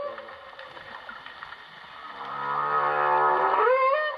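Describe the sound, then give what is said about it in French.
A male humpback whale sings during the breeding season, a long tonal phrase, a rich harmonic moan that swells louder midway and ends in a rising, bending whoop, heard alone with no talking. “Dans les années 70, on avait proposé, parce que les mâles émettent des sons pendant les périodes de reproduction, les biologistes nous avaient proposé le fait que ces sons étaient des attracteurs pour les”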